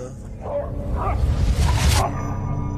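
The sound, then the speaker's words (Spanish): A dog growls low and lets out a few short barks and yelps, building to a louder, harsher burst before settling back into a rumbling growl. “El perro se puso a gruñir, ladró, erizó las orejas.”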